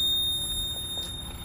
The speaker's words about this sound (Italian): una roba dell'acqua che fischia